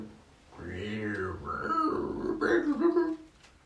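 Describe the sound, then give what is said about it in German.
A voice imitates a polar bear's low, rumbling grunt, a drawn-out growling vocalization with a couple of rising, rough bursts, fairly loud, with no clear words. “Der Zwerg hat seine Augen nicht rot und gesagt: Kannst denn du jetzt auch noch die Eisbärensprache?”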